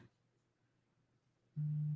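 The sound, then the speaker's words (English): A telephone busy signal on a call to a man who is not answering: one loud, steady electronic tone lasting under half a second, sounding after a stretch of quiet, faint line hum. No one speaks. “He's not answering the phone. See if we can get him on another phone.”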